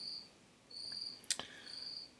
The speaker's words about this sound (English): And I might throw a shoe at Chrissie the Christmas cricket.